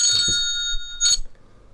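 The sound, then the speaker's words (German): A telephone rings with bright, steady electronic tones in two short bursts, loud and close, with brief pauses between them and no voices. “Was ist, ah, das Telefon klingelt.”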